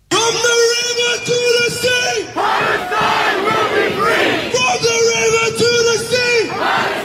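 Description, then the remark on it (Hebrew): A large pro-Palestinian protest crowd in Britain chants "Free Palestine" in unison on Armistice Day, voices rising and falling in a steady repeated rhythm, loud, with a roar of many people filling the background. “אנחנו רגילים לשמוע את הקולות האלו, שחררו את פלסטין כמעט בכל מחאה בעולם.”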